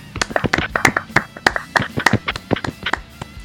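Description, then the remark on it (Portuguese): A few people clap together for several seconds as a round of applause for a prize winner, sharp irregular hand claps overlapping in a brisk, uneven patter that stays fairly loud throughout. “Uma salva de palmas para ele. Palmas.”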